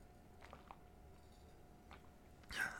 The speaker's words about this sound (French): J'espère aussi que ce bruit de, déglutition n'est pas abominable dans vos oreilles.